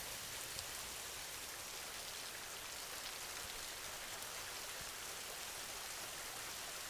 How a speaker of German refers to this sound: Der wohltuende Regen reinigt auch deine Gedanken.